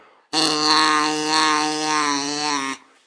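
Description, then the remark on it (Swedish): A duck call blown through a short tube in a small pipe gives one steady, buzzy, reedy, childlike honk lasting about two and a half seconds. It sounds fairly loud, with no voices around it. “Um, och om den åker genom det korta röret så blir det”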